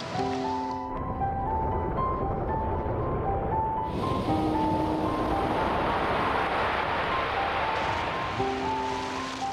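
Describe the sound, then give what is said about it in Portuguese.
A steady wash of ocean water surrounds a surfboard out in the middle of the sea, growing fuller and breezier halfway through, with faint sustained tones humming underneath and no one speaking. “Aqui em cima de uma prancha no meio do mar, a sensação é de absoluta paz.”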